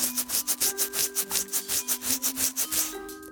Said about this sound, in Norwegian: Dette her er lyden av en gammel mann sitt kjønnshår.